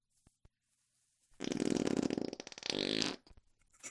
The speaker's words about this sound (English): you fart in meetings way too much. There has to be a way of resolving this problem. I wish there was a way for me to fart in meetings without grossing everyone out.